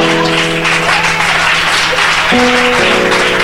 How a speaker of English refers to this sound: Why don't you clap for the Lamb of God?